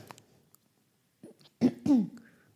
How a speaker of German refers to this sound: Oh, was ist da los? Ich musste mich räuspern.